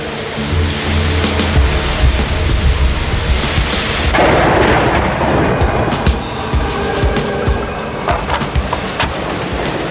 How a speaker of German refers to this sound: Das Unwetter wurde im Laufe des Tages immer schlimmer. Am Abend drehte sich der Windmesser auf der Spitze der Brücke rasend schnell und das Schiff stieß seinen Bug mit aller Kraft in die Wellen, um danach wieder nach oben gedrückt zu werden.